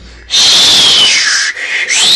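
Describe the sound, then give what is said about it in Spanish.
Someone whistles loudly and steadily to mimic the strong, howling wind of a squall, the high tone sliding down, pausing briefly, then rising again, with no talking. “y eran tendas de tierra las que le caían a uno con semejante aquel silbido tan fuerte que hacía el viento.”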